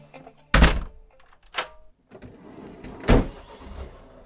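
A house front door shuts with a heavy thunk, then a lighter knock and a second solid thud follow, sounding like the door being pulled closed and locked, with no voices.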